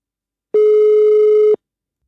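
A single steady electronic telephone ringing tone sounds for about one second during an outgoing call to the Moderaterna party, clear and fairly loud, then stops into silence; no one speaks.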